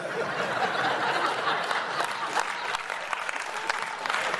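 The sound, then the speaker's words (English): An audience applauds steadily, a dense wash of many hands clapping at an even loudness, with faint chuckles and murmurs mixed into the crowd noise; the married people in the audience are applauding. “That's all the married people who are applauding.”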